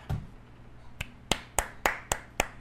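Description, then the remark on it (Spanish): A short run of hand claps, about six or seven sharp, crisp slaps in a fairly steady rhythm, following a quiet pause with a faint thump at the start. No one speaks. “Rara vez aplaudo, güey.”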